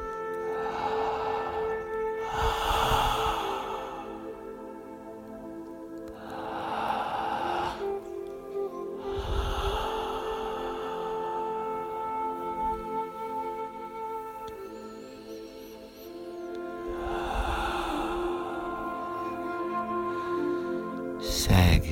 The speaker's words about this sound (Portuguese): a respiração suave e profunda, de novo pela boca, outra vez por la boca, a respiração assim, suave e profunda, por la boca.